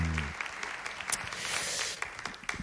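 An audience breaks into sustained applause, a dense, steady wash of many hands clapping at moderate loudness for a few seconds, with a brief low voice at the very start.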